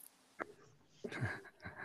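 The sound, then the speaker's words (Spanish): A single sneeze: a short catch of breath followed by a sharp, breathy burst, fairly quiet, with no talking around it. “Salud.”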